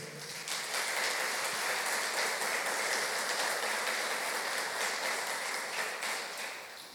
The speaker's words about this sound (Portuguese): Eu quero um aplauso para o Senhor.